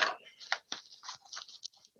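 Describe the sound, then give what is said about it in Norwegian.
Scissors snipping through yarn: a quick, irregular series of soft crunchy cuts and clicks, fairly quiet, with no voices. “Um, ehm, Saks.”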